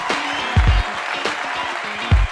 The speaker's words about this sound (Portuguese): E aqui estamos, cinco anos depois, 250 episódios depois, com muito amor, carinho, alegria, suor e lágrimas também. Então, uma salva de palmas para nós!